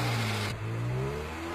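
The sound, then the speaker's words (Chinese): A sedan's engine hums steadily, then revs up, its low droning pitch climbing smoothly as the car is started and driven off to flee the scene. Loud and continuous throughout, with no voices. “贝索赶紧发动引擎，逃离了现场。”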